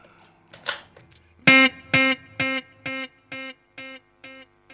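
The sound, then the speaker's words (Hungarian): A distorted guitar chord struck once, then repeated by a delay effect set to quarter notes, in evenly spaced echoes, about eight repeats, each slightly quieter and darker than the last. “Tehát, hogyha hallgatjuk ezt, akkor lehet hallani, hogy, hogy változik a, az ekuja magának, a dilének, hogy megy tovább.”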